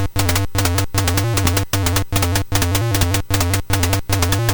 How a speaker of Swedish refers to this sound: Tillbaka till arkadoriginal. Kung Fu Master. Eh, ja, den lät så här på 64